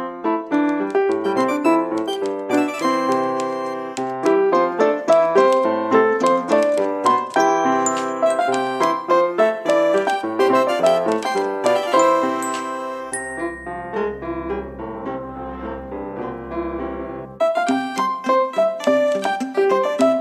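Bright, bouncy instrumental music with plucked, chiming tones in a quick rhythm, briefly thinning to a sustained low drone before the full melody returns. No voices.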